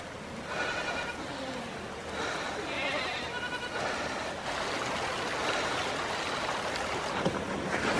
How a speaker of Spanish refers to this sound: Ve el auto volcado observa hacia atrás un grupo de cabras avanzando.